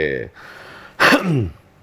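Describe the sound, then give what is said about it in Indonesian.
A single raspy throat-clearing burst follows a brief voiced murmur, then trails off into a low vocal rumble before quiet. “Kalau kalau batuk gitu ya.”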